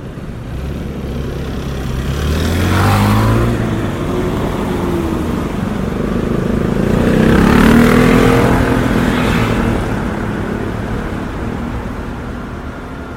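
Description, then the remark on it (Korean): A motorcycle engine revs through rising and falling gear pulls as it is ridden to a grandfather's house on a clear, sunny, still slightly cold spring day, loud, with steady rumble and wind noise throughout and no voices. “고등학교 2학년이 끝나고 온 봄방학 때 약속도 없었던 어느 날 너무 좋은 날씨에 꼬임받아서 할아버지 집까지 오토바이를 달렸다.”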